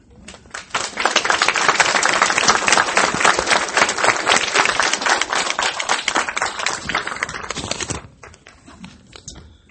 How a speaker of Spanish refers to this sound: Sin duda estos aplausos van a nuestro Dios Jehová por ayudarnos